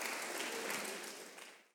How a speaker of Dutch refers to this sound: Geef ze een warm applaus.